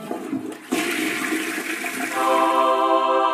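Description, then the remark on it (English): A toilet flushes, a sudden rushing surge of water that swirls loudly, then settles into a steady refilling hiss with a faint tonal whine. No one speaks. “We've had a good poop before our shower.”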